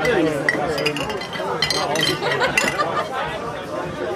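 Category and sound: household object, glasses clinking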